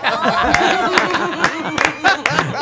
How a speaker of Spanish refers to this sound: Aplauso, qué, buen audio.